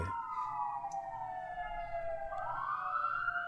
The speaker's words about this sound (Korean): 그래서 아, 소리가 너무 들리네요. 네, 아, 네. 여기가 네. 근처가 소방서가 있어갖고 아 아주 잊을만하면 한 번씩 이래요. 잊을만하면 어디서 사건 터져서 출동하고 있어요. 잠시만 기다리세요. 지금 소방차가 또 지나가는 것 같은데